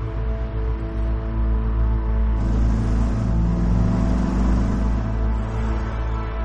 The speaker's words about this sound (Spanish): Sale en un coche.